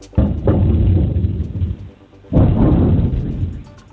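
Two heavy, booming explosions in Crimea, a couple of seconds apart, from a missile attack near the village of Olenivka around three at night; each a deep low rumble that swells suddenly and then rolls on, loud and broad, with no voices.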